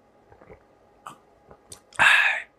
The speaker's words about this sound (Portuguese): Deixa eu tomar um golinho de café aqui, ó. Você vai ficar morrendo de vontade de tomar um café agora, ó.